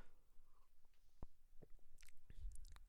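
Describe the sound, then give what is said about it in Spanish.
Someone takes a quiet sip of coffee to moisten their throat, with soft wet mouth clicks and a gulp scattered over a few seconds and no talking. “Traguito de café después de este rant para que se me humedezca un poquito la garganta y continuemos.”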